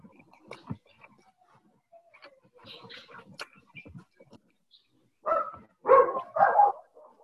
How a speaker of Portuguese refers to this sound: Cachorrinho